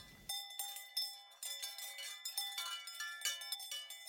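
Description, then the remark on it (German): Cowbells on unseen cows clank and jingle in an irregular, overlapping patter high above Lake Tegernsee, several bells ringing at once as the animals move, with wind. The sound is fairly clear, with no voices. “Als ich aussteige, höre ich nur den Wind und Glocken von Kühen, die nicht zu sehen sind.”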